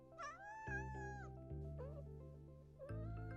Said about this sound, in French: Mais euh, pourquoi t'enregistres ma chatte